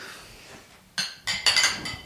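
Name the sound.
glasses clinking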